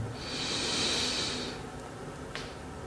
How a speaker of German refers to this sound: Wir nehmen den dritten tiefen Atemzug und atmen ein.